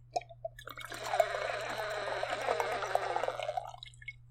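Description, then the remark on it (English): A wine aerator fitted directly into the wine bottle hisses and gurgles as wine is poured through it, a steady bubbly rush of air and liquid lasting several seconds before cutting off. “You put it I have one of the ones that you put like directly in the wine bottle and it sounds like this.”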